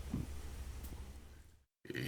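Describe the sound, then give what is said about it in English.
A low, guttural burp from a person in the middle of speaking rumbles for over a second, fairly quiet, then cuts to brief silence before a short noisy sound. “And I just burped right in the middle of what I was saying.”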